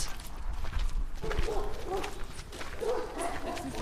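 Dogs at an animal sanctuary housing 14 dogs bark in short, scattered bursts, a few yaps rising over a steady, noisy background.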